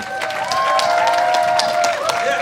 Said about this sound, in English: That is your time. That is your time there. So, uh, a big round of applause to